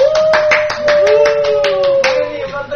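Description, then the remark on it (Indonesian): Steady hand clapping welcoming a writer as a guest on a talk show, a quick run of sharp claps in an uneven rhythm, with a high sustained tone humming underneath throughout. “Apa nih tepuk-tepuk nih?”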